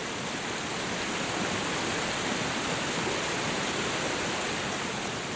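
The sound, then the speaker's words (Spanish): Steady rushing water pours continuously from the spouts of the fountain in the town square of Pasarón, in the Vera district, a dense, even splashing hiss that stays unbroken throughout, with no voices. “Uno de los símbolos de Pasarón, al igual que de toda la comarca de la Vera, es el agua, que se puede observar discurrir por las calles o saliendo de los caños de la propia plaza.”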